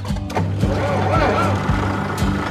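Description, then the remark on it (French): A tractor engine idles with a deep, steady rumble and a regular chugging knock, while faint voices murmur underneath. “C'est un tracteur que je vous vends là, hein. c'est pas une berline. Il un moteur, non”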